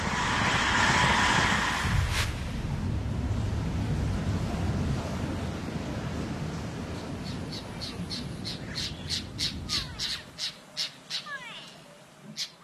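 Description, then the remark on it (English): A car train rumbles through, a loud low roar that gradually fades away, with a series of sharp, rhythmic squawking calls ringing out near the end. “We've got the car train coming through.”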